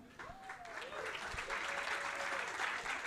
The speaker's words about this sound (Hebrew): יפה, מוחאים כפיים במקום הנכון.